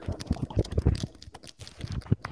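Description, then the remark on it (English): Quick, papery rustles and soft flicks repeat in a loose rhythm as the pages of comics are flipped one after another at a moderate volume, with no voices. “This is the sound of page, paper, tur- paper flipping through paper.”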